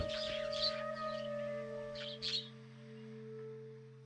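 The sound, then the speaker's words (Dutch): Small birds chirp in a few short, high twittering bursts over a steady low hum in the silent, destroyed village of Keilek, with long quiet stretches between calls and no voices. “Nu is alles stuk en het geluid van de stilte met alleen de vogeltjes heerst nu in Keilek.”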